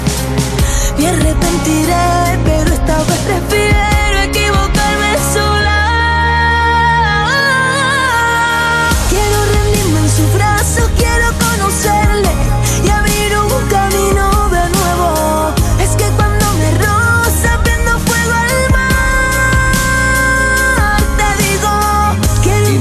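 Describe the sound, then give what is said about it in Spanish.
A loud, full-band song by a female singer plays continuously, with her melodic voice riding over steady drums, bass and layered instruments from start to finish. “Con sus canciones es capaz de crear un ambiente mágico que te envuelve por completo.”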